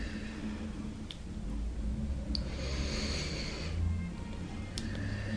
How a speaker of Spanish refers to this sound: Inhalamos por la nariz y exhalamos por la boca lento. Empezamos. ustedes lleven su ritmo de la inhalación y la respiración.